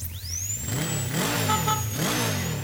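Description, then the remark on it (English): A motorcycle engine revs up loudly, its pitch rising and falling in two or three surging bursts, with a high whine sweeping upward over the roar, as its rider sits on the bike during a dental checkup in a Geico ad. “When you love riding a motorcycle, you want to ride it everywhere, even getting a dental checkup.”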